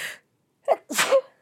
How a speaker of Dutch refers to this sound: Bless you.